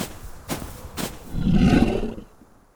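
Two sharp cracks, like snapping branches, are followed by a bear's deep, rumbling roar that swells for nearly a second before fading out. It's fairly loud, with no voices.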